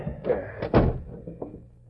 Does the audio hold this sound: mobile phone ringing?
no